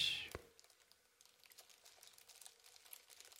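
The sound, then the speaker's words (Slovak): A small plastic toy is handled: one sharp tap at the start, then a steady stream of soft, crinkly clicks and rustles, faint and continuous. “No a zobral som si aj takéhoto malého kamaráta, plastového, ktorého už možno, že poznáte z iného videa.”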